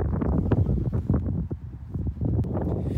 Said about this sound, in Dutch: Het is best fris buiten met, met deze wind.